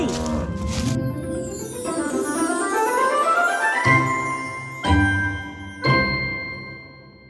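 A cow lets out a long, drawn-out moo that rises in pitch, followed by three clear rings of a bell spaced about a second apart, with no talking.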